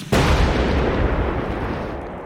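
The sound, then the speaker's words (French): A dynamite explosion goes off with a sudden loud blast, then a heavy, low rumble that roars on for about two seconds, fading only slightly. No one speaks. “On a donc super envie de donner des coups de pied dans le frigo, de lancer des trucs dans le salon, d'écraser des cartons, de hurler, de péter des planches, de casser une fenêtre et pourquoi pas de balancer des bâtons de dynamite.”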